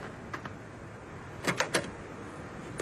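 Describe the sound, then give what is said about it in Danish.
Someone tries to open the locked door of the coin collection in Københavnstrup, closed indefinitely: a few sharp clicks and rattles of the handle come in short bursts, fairly quiet, with no voices. “Her ved døren, der skal jeg bare lige, så skal Hvad?”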